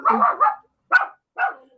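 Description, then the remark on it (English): A dog barks loudly, a quick doubled bark followed by two more sharp single barks with brief pauses between them, with no talking. “I'm just gonna mute because that thing loves to scream.”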